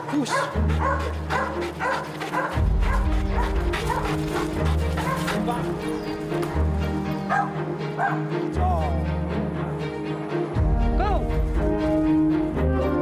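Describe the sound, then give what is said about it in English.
Ellie, a dog that competes overseas, barks repeatedly in short yips and lets out a few high, rising whimpers, all over a loud background track with a steady, pulsing bass. “They say, Your dog is so impressive, can my dog be like that?”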